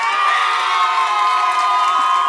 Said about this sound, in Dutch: Publiek, en jullie mogen voor eender wie applaudisseren. Laat jullie eens even horen.